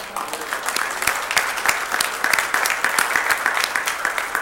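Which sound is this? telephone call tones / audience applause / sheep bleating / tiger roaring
audience applause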